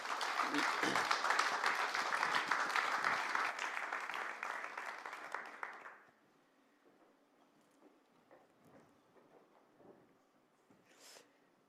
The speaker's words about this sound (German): Lasst uns doch nochmal einen Applaus geben.